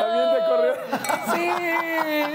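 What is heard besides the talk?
glasses clinking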